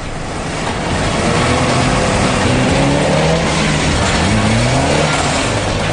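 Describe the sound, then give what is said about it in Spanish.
A motorcycle engine, started for the first time on a dynamometer after coming off a factory assembly line, runs loudly and steadily, its pitch climbing and dipping as it revs, over a constant roar of mechanical noise with no voices. “Se enciende el motor por primera vez y se hacen girar los engranajes.”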